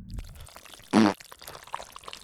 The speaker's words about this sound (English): Fart. Right there. I, I got it out of the way.